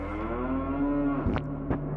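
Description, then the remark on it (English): A cow lets out one long, deep moo, holding steady for over a second before ending in two short, breathy snorts. “the hellish heifer would stalk the children and eat them before turning them all into cow pies.”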